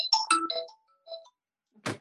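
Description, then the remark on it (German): A work mobile phone rings with a bright electronic melody of quick tonal notes, pauses, plays a short phrase again, then a brief noisy burst follows. No one speaks. “Arbeitshandy, das habe ich jetzt nicht kommen hören, aber es ist live.”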